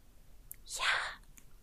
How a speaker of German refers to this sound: Nein, nein, nein, wechsel nicht zu ASMR. Warte, hört man das? Ich will mal ausprobieren.